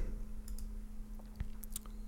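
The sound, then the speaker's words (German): A handful of sharp mouse clicks, spaced irregularly over a couple of seconds, made while using an eraser tool in image-editing software to paint a hole into a black mask, with a steady low electrical hum running underneath and no one speaking. “Und jetzt male ich quasi mit einzelnen Klicks ein Loch in meine schwarze Maske.”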